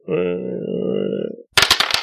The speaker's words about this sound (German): Und du kannst mal geistige Stabilität würfeln.